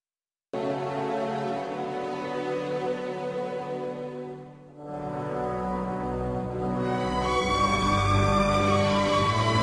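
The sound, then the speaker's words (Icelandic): Sweeping orchestral film theme music, from The Lord of the Rings: The Fellowship of the Ring, plays steadily and fairly loud, with sustained strings and rich harmonies; it briefly thins near the middle before swelling again with brighter tones. “þetta eru sannsagt þemalög úr frægum bíómyndum”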